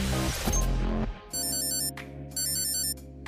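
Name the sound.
smartphone alarm ringing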